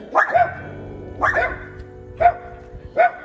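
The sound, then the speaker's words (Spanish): Small pet dogs on an outdoor terrace bark in four sharp, yappy bursts spaced about a second apart, fairly loud, with a low steady hum in the background and no talking. “Van a disculpar a mis perritos”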